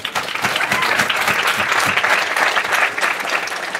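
Steady applause from an audience for a man seated in the front row fills the whole stretch, dense overlapping claps at a fairly loud, even level with no voices standing out.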